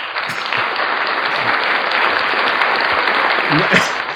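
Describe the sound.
Loud, continuous applause from a crowd fills the whole stretch, a dense steady patter of clapping with a few faint voices mixed in underneath.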